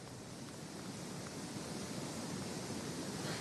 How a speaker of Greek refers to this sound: Είναι τα νερά του ποταμού της Νέας Ιωνίας, έχει μετατραπεί σε χήμαρο έχει παρασύρει